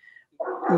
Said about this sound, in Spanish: no sé si se escucha de fondo un perro que, se pone a ladrar a esta hora